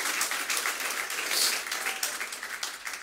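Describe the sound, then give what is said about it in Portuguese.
A church audience applauds for Jesus, a dense, steady wash of many hands clapping that fills the space at moderate volume for a few seconds, with no clear voices above it. “Você pode aplaudir”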